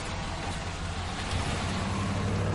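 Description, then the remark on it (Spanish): The engine of Kubi's white van runs as Walt pulls away, a steady low rumble with a broad wash of road noise that holds at an even level throughout, with no voices. “Walt arranca y se aleja de ellos.”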